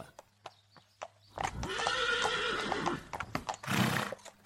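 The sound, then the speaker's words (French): A horse whinnies loudly for a couple of seconds, with a steady clip-clop of hooves before and after, ending in a short snort. “une semaine de route à cheval fut nécessaire pour rejoindre le lieu du rendez-vous.”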